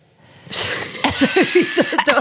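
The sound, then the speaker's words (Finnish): A harsh burst of coughing, then another hack that breaks into a quick run of rhythmic, wheezy, voiced pulses, like a cough fit trailing into breathless gasps. No speech. “Hyvä, koska mua yskittää aivan uistuttavasti.”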